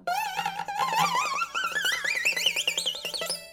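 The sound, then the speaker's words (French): Mandolin played with a glass bottleneck slide, its bright, sustained notes gliding steadily upward with a wavering vibrato over quick plucked strings, ending on a higher held tone. “Tu dois fermer les cordes avec un verre et ça donne un son un petit peu très proche pour moi, c'est la guitare hawaïenne.”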